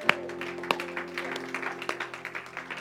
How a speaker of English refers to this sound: And everybody said, Amen. Come on, give a clap offering to God if you would.